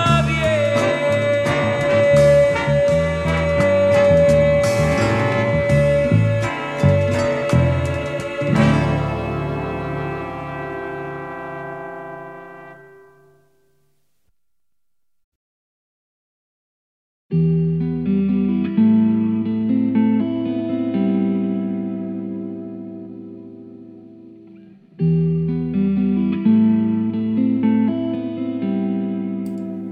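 A bolero plays, its rich instrumental sound fading out into several seconds of silence before a new melodic passage begins, pauses briefly, and starts again. No voices are heard.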